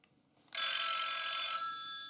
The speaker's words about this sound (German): Ich würde sagen, das Telefon klingelt nach deinem kleinen subtilen Hinweis.